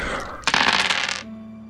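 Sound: ten dice being rolled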